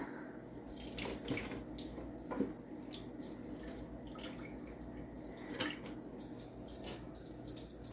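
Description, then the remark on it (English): Water is drained from a pot of boiled sweet potatoes into a sink, a steady, continuous splashing rush with a few sharper clinks and spatters of pot against metal along the way. “Just gonna drain it a little bit, but I'm gonna leave some of the water in because it'll make it easier to freeze, I think.”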